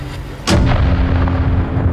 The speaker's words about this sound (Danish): bliver pludselig punkteret af smældet fra sheriffernes Winchester-rifler, der sender ekoeksplosioner ned mod vandet.